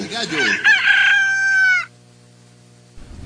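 A rooster crows loudly and close up, one full cock-a-doodle-doo lasting under two seconds with a rising then held strained note, followed by near silence.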